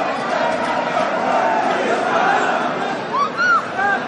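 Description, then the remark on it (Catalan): A large crowd in Valls fills the air with steady, dense cheering and chatter, loud throughout, with a few rising shouts or whistles near the end, as people congratulate, applaud and photograph the base of a human tower (castell) raised by the two Xiquets de Valls teams. “I ara de estan, Valls, eh? estan felicitant i estan eh, aplaudint i fotografiant el que era el baix d'aquest castell i diria que de tots els castells que s'han fet avui”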